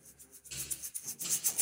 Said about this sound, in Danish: vi lige måske kan vi rasle lidt med vores rasleæg.